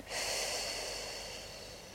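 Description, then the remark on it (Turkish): A long, deep breath of rushing air, taken during a relaxation exercise, starts abruptly and holds steady for about two seconds before softening slightly as it is let out. No one talks. “Kocaman büyük nefes al. Al al al. Ve tamamen verirken gevşediğini hisset.”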